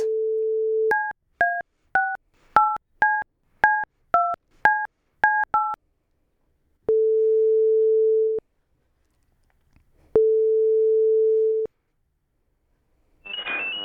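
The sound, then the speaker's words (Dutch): A dial tone gives way to a quick run of about ten keypad dialing beeps, then two long ringback tones separated by a pause, as an outgoing phone call to an audiologist rings before someone picks up. “Daarvoor bel ik met audioloog Jan de Laat.”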